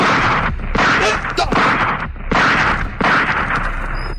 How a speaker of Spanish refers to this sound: Tiró los cinco tiros de la pistola y se quedó con ella en la mano.